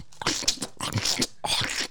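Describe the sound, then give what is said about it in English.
Close, loud crunchy chewing during a taste test, in three bursts separated by brief pauses, each full of bright crackling bites, like someone munching crisp food right against the microphone. “So you freaks like hearing me chewing your ear.”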